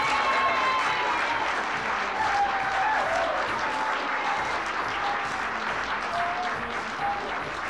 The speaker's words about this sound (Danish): Og publikum jublede.